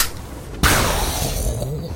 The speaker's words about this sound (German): ein Schuss pfeift durch das Partyzelt. Die Schrotladung schlägt mitten in der Brust von diesem starksigen Wesen ein